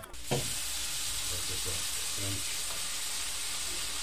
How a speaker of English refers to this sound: you may hear the grill behind me.